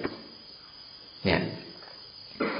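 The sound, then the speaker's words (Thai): A steady chorus of crickets chirping, a continuous soft, high buzzing texture, with a short spoken word breaking in twice over it. “อย่างเงี้ยหูหูอันเดียวแต่เดี๋ยวจะยินเสียงอาตมาบ้างเสียงกิ้งหรีดบ้างเสียงนกร้องบ้างเสียงอะไรอย่างเยอะแยะเลย แต่ว่าก็แค่หูใบเดียวเท่านั้นเอง”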